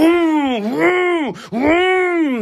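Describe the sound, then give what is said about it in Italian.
A voice imitates the loud revving engine of a Lamborghini passing below offices in the City of London, with two drawn-out roaring revs that rise and fall in pitch and a brief breathy break between them, strong. “E quindi se tu vai alla City of London il lunedì mattina, trovi di solito delle macchine, delle Lamborghini molto rumorose che passano sotto questi uffici e fanno”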